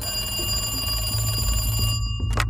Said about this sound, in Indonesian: Di tengah keheningan, panggilan telepon berbunyi.